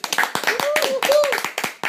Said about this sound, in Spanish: Vale, entonces nos vamos con un aplauso para la canción.